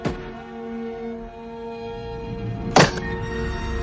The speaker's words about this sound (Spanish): Clava el hacha sobre un madero